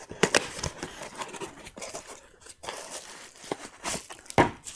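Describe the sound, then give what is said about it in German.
Crinkly rustling of packaging material while a large parcel is unpacked, with irregular bursts of crumpling and crackling over several seconds, louder at the start and end, with no one speaking. “Dann werde ich das wohl gleich erst auspacken.”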